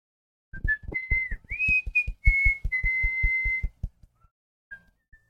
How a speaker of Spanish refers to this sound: Está aventando un chiflito bien verga.